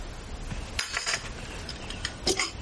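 A few light ceramic clinks, like a teacup tapping its saucer as someone sips tea, spaced irregularly over soft background noise, fairly quiet, with no talking.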